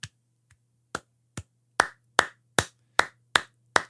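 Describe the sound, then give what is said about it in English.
A handful of sharp, separate claps ring out at a slow, uneven pace, starting faint and sparse, then growing louder and steadier, with a low steady hum underneath. “You hear a smattering of”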